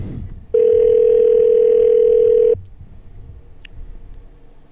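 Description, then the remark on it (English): A single loud, steady telephone ringing tone sounds for about two seconds, then cuts off, leaving only faint low background noise with no one speaking. “Um, you're really making the show look bad here at the end because I mean I had to try to call you now like three times.”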